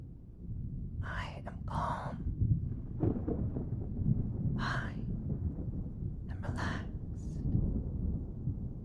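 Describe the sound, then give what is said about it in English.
Rolling thunder rumbles low and steady throughout, a continuous deep roar, with a few brief breathy, whisper-like hisses rising over it now and then. “I deserve to listen to the thunder for just this moment.”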